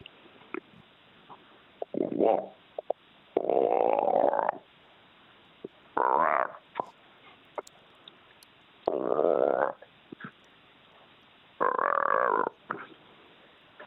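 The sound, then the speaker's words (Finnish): A person imitates the croaking of a bream at the bottom of a boat: five loud, rough, guttural grunts, each about a second long, separated by short quiet pauses, with no talking in between. “En ole ikinä kuullut lahnan, mitä, miksi tuota nyt sanoisi, korinaa no, veneen pohjalla.”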